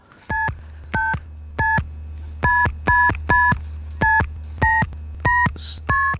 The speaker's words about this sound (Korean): 이 노래, 노래 듣다가 요 전화기, 예, 다이얼 누르는 소리 들리면 어떤 노래에서 들으셨는지 가수 이름이나 노래 제목이나 아니면 들리는 가사도 좋습니다.